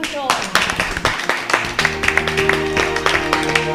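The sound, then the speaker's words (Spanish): An audience breaks into steady applause, many hands clapping in a dense, continuous patter at moderate loudness, joined about halfway through by a sustained humming tone underneath. “Pues nada, muchísimas gracias. Un”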